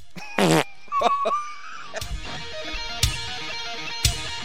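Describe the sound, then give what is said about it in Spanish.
A brief, buzzy fart noise with a wobbling pitch, followed by a few more sputtering bursts and several sharp thumps, fairly loud, with no talking. “¿Por qué es tan gracioso el ruido de pedo?”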